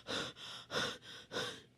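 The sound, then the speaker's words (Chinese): Rapid, breathy panting, about five quick heaving breaths in a steady rhythm, airy and hissy, with no talking, as someone catches their breath after running all the way home and shutting the door. “他甩掉八哥，一口气跑回家，关上门，喘喘气儿。”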